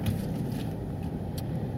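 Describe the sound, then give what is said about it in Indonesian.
A car's engine rumbles low and steady, moving slowly with no sharp revving, as the car edges carefully into a cramped space it can barely get into, steering forward to the right. “Ini mobil ini nggak bisa masuk mobil nih, tanggung nih.”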